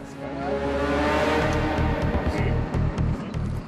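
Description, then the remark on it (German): A heavy truck engine revs loudly, a steady low drone climbing in pitch before settling into a deep, rhythmic throbbing rumble. No one speaks. “Einen schweren Lastwagen zu steuern ist um einiges schwieriger als einen Pkw zu fahren.”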